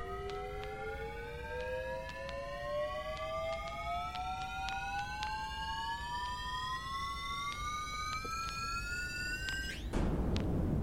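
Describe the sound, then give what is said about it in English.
Heavy machinery groans as a large mass in front of a window starts to spin up after a large switch is thrown, a loud harmonic whine climbing steadily in pitch over a rumbling bed of noise, with scattered clicks and a sudden jolt at the end. “There's an immense groaning sound, and the mass in front of the window begins to spin slowly.”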